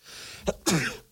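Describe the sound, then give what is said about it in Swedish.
A single loud sneeze: a brief sharp intake-like burst followed by a stronger explosive 'choo' with a short voiced tail, then quiet. “So when you sneeze, you say pro yes, shit.”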